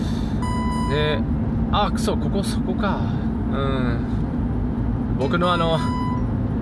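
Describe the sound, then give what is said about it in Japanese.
A dashcam (drive recorder) sounds a bright, high electronic warning beep in two short bursts, the alert it gives where a speed camera (Orbis) is, over the steady low rumble of a car on the move, while a man talks briefly. “あれが鳴ってます、えー、ドライブレコーダーが、あの、オービスかなんかがあるところで鳴るんですよね、ないんですけどね、ここ。”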